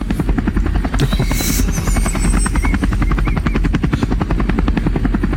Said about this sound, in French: Attendez, je vais changer de son pour qu'on fasse l'hélicoptère.